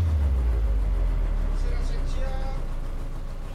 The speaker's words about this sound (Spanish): La lancha autobús se detiene en un estropeado embarcadero de maderas gastadas